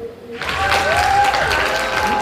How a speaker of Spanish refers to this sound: Con un nudo en la garganta, conmovido por esta ovación, Toño Mauri recibió un premio.